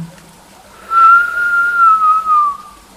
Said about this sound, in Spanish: Relajo y exhalo por la nariz. Inhalo con un silbido y exhalo por la nariz. Continúa.